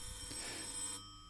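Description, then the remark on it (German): A front-door doorbell rings once in a steady, bright electric buzz lasting about a second, then cuts off abruptly, leaving a quiet hum. No one speaks. “Es klingelt an der Tür.”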